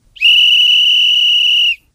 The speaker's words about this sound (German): So, wir haben den Anpfiff zur ersten Halbzeit gehört.